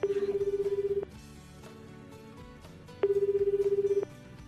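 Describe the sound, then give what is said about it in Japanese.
A telephone ringback tone sounds twice, each a steady, evenly pulsing one-second burst with a two-second gap between, heard clearly over faint background music, as Kumamoto RKK radio calls a listener in Hadano City. “突然の電話で恐縮でございます”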